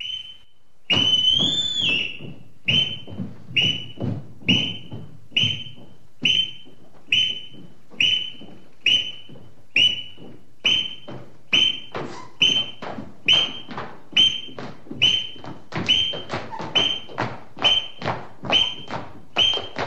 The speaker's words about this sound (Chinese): 随着上校的哨子声，孩子们快速的从各自的房间跑了出来，站成一排，然后合着哨子的节奏，正步走下楼来。